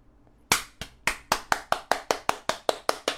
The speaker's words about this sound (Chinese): 吼！好！我们全都站起来，拼命鼓掌，大叫：“太棒了！太棒了！”再来一次。